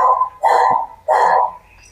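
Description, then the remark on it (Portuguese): A happy dog barks loudly, three sharp, full-throated barks spaced about half a second apart, with no talking around them. “Que o cachorro tá participando, ele ficou muito feliz.”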